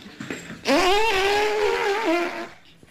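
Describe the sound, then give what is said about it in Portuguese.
A mother imitates an elephant's trumpet, a loud, sustained, brassy blare that rises, holds steady for nearly two seconds, then dips and fades out. “Adoro a minha mãe imitar o elefante.”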